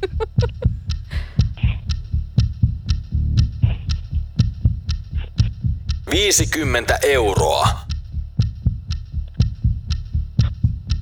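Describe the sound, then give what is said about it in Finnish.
A game clock sound effect runs throughout a game, a steady, fast pulse of deep thumps with sharp ticks on top, loud. Partway through, someone laughs and speaks briefly over it. “Laitetaan pelikello käyntiin.”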